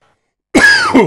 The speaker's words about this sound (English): And uh, again, sorry for any coughing. I did manage to hit the, the mute button once in the recording of the show, so it wasn't like this big long coughing coughing fit.